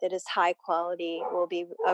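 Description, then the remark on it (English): A dog barks a few times in the background while a person keeps talking, the barks mixed in with and partly masked by the voice. “Sorry about my dog.”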